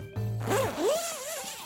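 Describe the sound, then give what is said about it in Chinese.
The zipper of a plush teddy bear is pulled open in one quick, raspy stroke lasting about a second, its pitch swooping up and down as it goes. A short low thud comes before it, and no one speaks. “从塑胶袋里取出布偶熊，拉开拉链。”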